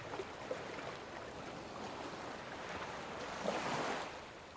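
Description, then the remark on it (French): Rough sea surf churns and crashes continuously with gusting wind in a windstorm, a broad roaring wash that swells louder toward the end before easing slightly; no voices. “Ils étaient juste confrontés à un tourbillon, une tempête de vent.”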